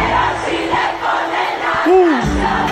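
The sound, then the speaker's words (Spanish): A large concert crowd, recorded in a fan video from a concert the night before, roars and cheers continuously and loudly, with one sustained voice or whistle rising and falling briefly above the din near the end. “Me sigue mandando más videitos del concierto de anoche.”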